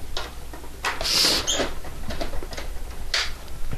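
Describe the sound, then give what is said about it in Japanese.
A plastic game cartridge scrapes out of a console slot that has no eject button, and a cartridge is pushed back in as the players switch to Hyper Olympic: two short sliding clicks with a faint rustle between them and no voices. “消していい、うん、これどうやって抜くのそのまま抜いていいすげえエジェクトがない”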